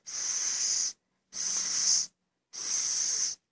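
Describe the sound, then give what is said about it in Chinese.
A voice imitates a snake, making three drawn-out "sss" hisses, each about a second long with short pauses between, bright and steady. “我们呢要做一个 s 的形状，s s s，就像一条 snake 在那里爬哟。”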